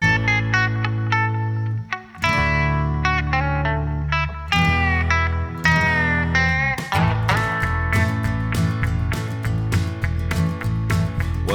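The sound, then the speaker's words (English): A Christmas song recording plays loud and steady, with effects-heavy, slightly distorted instruments, sustained chords and a driving rhythmic pulse, a brief dip near the start, and no talking over it. “Um, and and without further ado, let's let's get started talking about some Christmas songs.”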